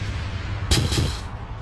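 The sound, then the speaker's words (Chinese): A pair of sharp, booming explosion blasts, from wind-and-thunder energy striking a magical barrier, lands in quick succession over a steady low rumble, the first slightly louder, with no voices present. “风雷继续打在天力的禁制上，又发出了一声爆炸声。”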